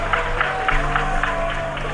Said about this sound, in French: Première pénalité ratée de Michael Laina. 0. Si les gens ont applaudi l'échec ou applaudi le fait qu'il ne méritait pas de le réussir.